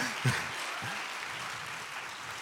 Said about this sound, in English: So once you have your vision established, you can go ahead and clap for that. That was, that was good.